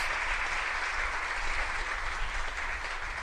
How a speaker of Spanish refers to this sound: Gracias, gracias, gracias por sus aplausos. Se siente el cariño de la gente, eh, se siente.